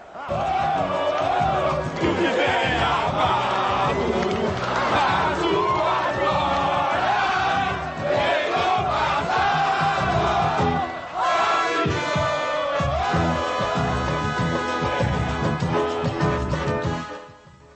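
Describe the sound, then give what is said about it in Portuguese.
A huge crowd of São Paulo football fans at the Morumbi stadium roars and chants in unison, celebrating the club's fourth title of the decade, a dense, sustained wall of voices that surges and pulses for nearly eighteen seconds without letting up. “Faz a festa o torcedor do São Paulo, faz a festa o tricolor paulista.”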